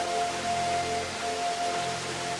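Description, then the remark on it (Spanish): Steady rushing water, like a fountain splashing, fills the scene with a dense, even hiss that never lets up, with no voices and a faint tonal hum beneath. “el ruido de las aguas empieza a desaparecer.”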